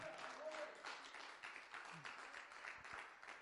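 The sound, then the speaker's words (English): A crowd claps steadily in unison-like applause as a hand clap of praise, a dense, sustained patter of many hands at moderate volume, with faint voices mingling underneath. “If you believe that, give him a hand clap of praise.”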